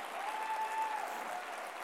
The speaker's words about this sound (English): Can you clap your hands if you believe it for me this morning? Come on.